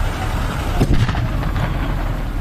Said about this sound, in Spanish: una explosión complicó lo que ya era un caos.